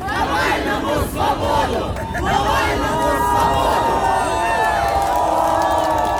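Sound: protest crowd chanting slogans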